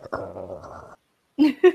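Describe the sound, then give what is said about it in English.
A person imitates a dog's low, rumbling warning growl, held steadily for nearly a second, then two short, sharp vocal bursts follow after a brief pause. “The other dog is there, just go,”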